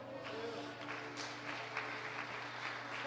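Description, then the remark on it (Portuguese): An audience claps for the Lord steadily for about three seconds, a dense, even patter of many hands over a constant low electrical hum, with no voices standing out. “Aplauda o Senhor.”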